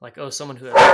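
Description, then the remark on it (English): A person talks steadily, then a single loud, sharp bark from a dog wanting to get out cuts in at the very end, drowning out the voice. “whoa sorry my dog wants to get out”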